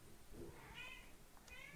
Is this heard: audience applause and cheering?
no